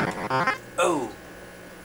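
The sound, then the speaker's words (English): The video game character Cubert's garbled cursing: a quick string of buzzy, synthetic gibberish syllables ending in a falling squawk, loud, over a faint background hum. “That noise you heard was Cubert saying very naughty words.”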